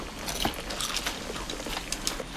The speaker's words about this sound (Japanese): ポテチを食べながら炭酸を飲む人というねなんともズボラなねジャンキーな生活をしている音がこれだけで作れちゃいますね